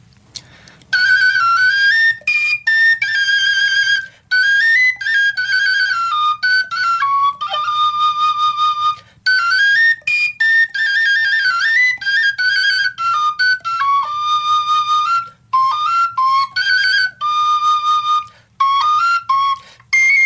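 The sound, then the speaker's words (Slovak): A Slovak fujara plays part of a folk ballad melody alone, its airy overtone notes stepping and sliding between pitches, with a few short breaths breaking the otherwise continuous, fairly loud line. “Dušan Holík z Očovej a Duša fujary 2017”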